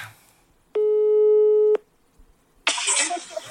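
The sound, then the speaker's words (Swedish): A single steady ringback tone on an outgoing phone call to someone's mother, lasting about a second and fairly loud, then a short quiet gap before a burst of harsh rustling crackle. “ringer henne på en gång.”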